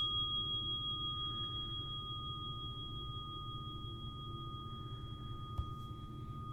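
A mindfulness bell rings out in a long, steady, pure tone that hangs in the air without fading, over a low, constant rumble of traffic from a highway interchange. No one speaks.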